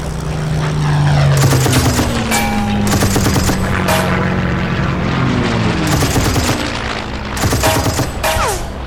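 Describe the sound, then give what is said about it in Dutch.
A fighter plane roars in a dive, its engine pitch sweeping, while repeated loud bursts of rapid machine-gun fire rattle out as it strafes a train full of ammunition on the railway between Zutphen and Hengelo, intense throughout. “Zonder te aarzelen duiken Raymond en zijn kameraden erop af en nemen het onder vuur.”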